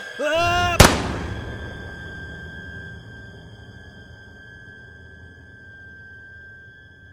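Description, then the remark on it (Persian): A voice lets out a rising, strained yell that is cut off by a single sharp, loud rifle shot as a rifle held to the shooter's own temple is fired, followed by a steady high-pitched ringing tone over a low rumble that slowly fades. “توفنگ آوردم بالا گذاشتم رو شقیقه خودم و با همه وجود فریاد کشیدم و ماشه رو زدم”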